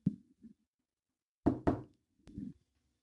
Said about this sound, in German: Also ich klopfe, also ein normales Klopfen ist dreimal. Tock, tock, tock. Bei mir. Nee, ja, zweimal. Dreimal ist ein normales Klopfen.